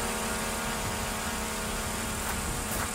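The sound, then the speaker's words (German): A steady, high-pitched mechanical buzz of the propellers of a drone from the USA whirring continuously in flight, loud, with no speech. “mit dem Erlös diese Drohne für knapp 30.000 Pesos gekauft”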